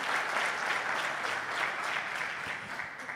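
Sustained applause from an audience clapping for the Lord, a dense, steady crackle of many hands clapping at an even, fairly loud level throughout, with no voices standing out.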